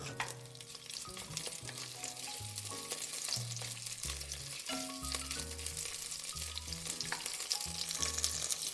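Onions sizzle steadily in hot fat in a frying pan, being sweated for at least five minutes, a continuous crackling hiss that runs the whole time beneath a gentle melodic music track, with no one speaking.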